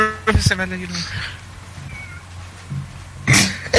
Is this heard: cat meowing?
yes